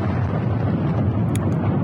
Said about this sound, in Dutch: Op Twitter, daar doen de beelden de ronde over eh, twee enorme explosies. Ja, dat zijn eh, munitieopslagdepots.